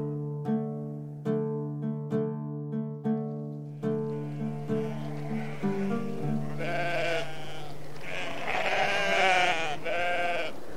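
A flock of sheep being herded to pasture on open land on the outskirts of Mecca bleats, several wavering calls overlapping loudly in the second half, after a few seconds of steady, evenly spaced musical notes.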